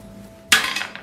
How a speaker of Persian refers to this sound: شیش یس دوباره بنداز شیش همه شیشه رو جمع کرده بختم بختم حتی تاسم بلد نیستم بندازم آره میدونی چون یه زاویه خاصی داره تاسش